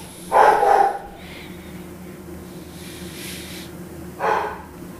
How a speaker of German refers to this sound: Whisky bellt gerade mit einem anderen Hund, weil ein Hund angefangen hat zu bellen und dann ist jetzt Bellen angesagt. Whisky! Ruhig jetzt.